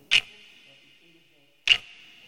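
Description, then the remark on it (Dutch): Two crisp ticks of a watch while someone waits sitting on the floor outside a lecture hall door, spaced about a second and a half apart, each followed by a thin, lingering metallic ring in an otherwise quiet space. “Hmm, de de wijzer kruipt zo tergend traag over mijn horloge.”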